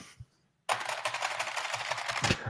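Fast, continuous typing on a clicky mechanical keyboard, a dense stream of sharp, bright key clacks, starting abruptly after a brief quiet moment, with no talking.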